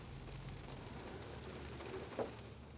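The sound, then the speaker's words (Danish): Steady, soft rain hisses throughout as a quiet, even wash of noise, with one slightly louder drop or tap standing out near the end. No one speaks. “Det regner.”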